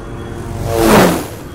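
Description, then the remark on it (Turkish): An airplane engine roars past as a plane flies to Istanbul, swelling from a steady hum to a loud whooshing peak about halfway through and then fading again, with a falling pitch as it flies by. “Ve İsmail YK ilk uçakla İstanbul'a gelir.”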